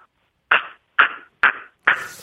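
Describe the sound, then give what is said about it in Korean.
A person imitates a narrow-mouthed toad's call: four short, nasal, resonant croaks evenly spaced about half a second apart, fairly loud with silence between. “맹꽁이 울음소리 하겠습니다.”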